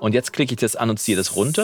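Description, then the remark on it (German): A voice in an unprocessed vocal recording, before its S sounds are reduced in editing, speaks steadily, its S sounds coming through sharp and hissy, with a bright high sizzle hanging behind the words through the second half. “Du hörst das S auch im Hintergrund rauschen.”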